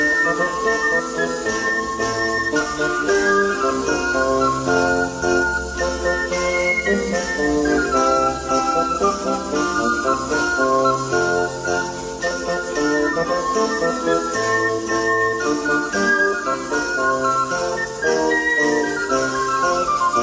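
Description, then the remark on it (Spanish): An Italian Renaissance song plays at a steady, even loudness, with bright, piping melodic lines woven over layered harmony and a soft low accompaniment, and no talking throughout. “Bueno, pues yo le voy a dejar una de estas canciones del Renacimiento italiano que es muy posible que llegara a escuchar el gran capitán”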